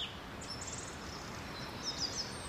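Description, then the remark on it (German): Recorded birdsong plays back: small birds chirp and twitter in quick, high bursts, with a cluster of sharp calls near the end, over a steady hiss of background noise; no one speaks. “Warum ist Vogelgezwitscher eigentlich so beruhigend? Ja, selbst wenn man es vom Band abspielt?”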